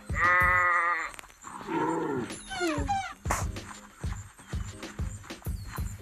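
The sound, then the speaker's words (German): Several sheep bleat in quick succession, wavering and fairly loud, over a steady series of low, rhythmic thuds that continue throughout. “Oh, Schafe und ein Bär komm, Bro.”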